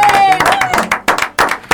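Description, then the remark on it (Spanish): A short burst of loud crowd applause, dense clapping swelling and dipping in waves with cheering voices mixed in, lasting under two seconds, marking Argentina's Día del Médico (Doctors' Day), December 3. “Un aplauso.”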